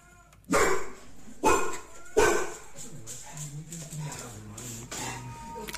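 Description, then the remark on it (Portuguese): Three sharp, loud dog barks in quick succession, followed by softer whining and yipping sounds, as dogs react to a recording of a husky. The barking is excited, with no talking. “Isto são cães confrontados.”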